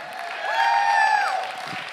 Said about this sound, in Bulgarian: Нека пробвам тази страна, защото тази страна не пляска много силно.